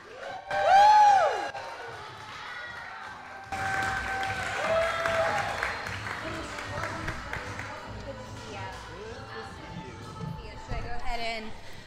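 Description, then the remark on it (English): A theater audience breaks into steady, sustained applause to welcome the first guest to the stage, a dense wash of clapping with scattered cheers and voices mixed in, lasting several seconds after a brief tonal opening. “Everyone, please join me in welcoming to the stage”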